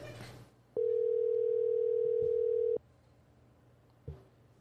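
A phone ringback tone sounds once: a steady, loud electronic buzz lasting about two seconds, then quiet line noise, with a faint click near the end.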